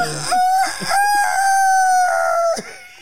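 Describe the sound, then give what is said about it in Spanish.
A person imitates a rooster's crow: one long, loud, drawn-out call that rises briefly, holds a steady pitch for about two seconds, then drops off abruptly, with no talking. “No es gallina, es como un gallo.”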